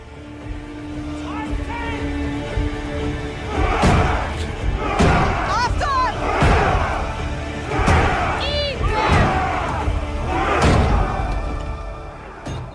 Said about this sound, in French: Dès le lendemain, il envoie ses hommes attaquer la tour du Grand Châtelet qui protège l'entrée du pont, enjambant la Seine. Ils arrivent avec leur bélier et tentent d'enfoncer la porte.